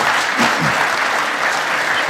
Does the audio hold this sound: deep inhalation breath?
no